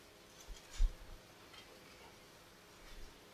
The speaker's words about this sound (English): I love when I hear the pages turn. It brings me back old school, right? When there was actually books instead of this.